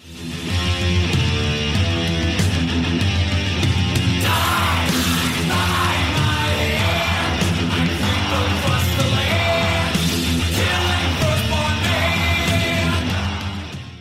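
A loud, dense stretch of thrash metal plays for about fourteen seconds: driving distorted guitars and pounding drums with shouted vocals over the top, steady and full throughout.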